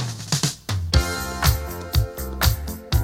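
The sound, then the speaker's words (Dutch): A soul record opens with a punchy drum groove, kick and snare hits landing steadily about twice a second over a warm bass line, loud with no voices. “Dat drumfilmpje in het begin, mm dat hier, dat vind ik heel ja.”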